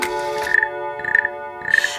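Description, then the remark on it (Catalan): The frog-croak chime of the famous clock of the Diafragma studios striking noon: a steady buzzy, reedy tone with three rhythmic croaking pulses at even intervals, moderately loud, with no voices. “La granota! És la granota! És la granota!”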